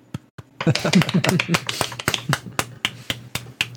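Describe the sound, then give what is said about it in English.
A light, scattered golf clap: handclaps patter unevenly for a few seconds, a quiet polite clapping with sharp little taps, while a voice murmurs briefly at the start. “Golf clap, golf clap.”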